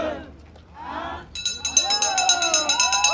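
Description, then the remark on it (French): A bright, rapidly repeating bell rings continuously from about the midpoint on, loud and sustained, signaling the start of a race with 90 starters, over crowd noise and excited voices calling out. “C'est parti, vous entendez la cloche.”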